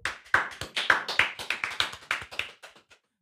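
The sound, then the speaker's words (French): A small studio audience applauds a slam singer arriving as a guest, with quick, overlapping claps, fairly loud, gradually thinning out and fading before stopping near the end. No one speaks. “Et il arrive, on l'applaudit.”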